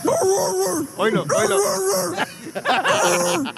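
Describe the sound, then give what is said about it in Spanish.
A police officer imitates a dog barking, a run of loud, strained woofs and yelps over about three and a half seconds, clear with no other talk. “Oye, mi pregunta es, ¿quién le enseñó a ladrar a ese policía?”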